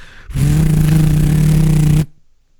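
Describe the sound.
A voice imitates a helicopter with a loud, steady buzzing drone for nearly two seconds, slightly fluttering throughout, then it stops abruptly into silence.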